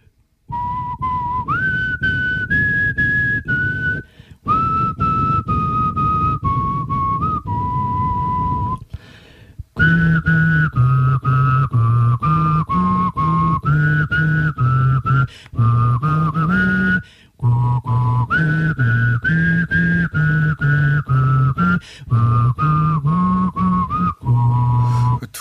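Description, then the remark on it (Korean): A steady whistled melody by one person alone, first a single clear tone, then two notes sounding at once in harmony, one high and one low, moving through a tune with brief pauses and no talking. “뼈지 소리가 아니라 휘파람이 잘못 나온 거 아니에요?”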